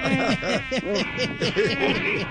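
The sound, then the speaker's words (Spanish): A voice imitates a mosquito's buzzing: a continuous nasal whine that swoops up and down in pitch in quick rhythmic waves for a couple of seconds. “ya empezaron, ya empezaron estos zancudos a joder me tocó actuar porque este berraco zancudo no me va a dejar hablar.”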